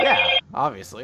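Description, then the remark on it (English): A loud, bright electronic phone notification tone rings out in one short burst, then cuts off as a voice speaks a few words. “Uh, that, that was my phone saying that yes, he's dead.”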